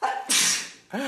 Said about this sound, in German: Gesundheit.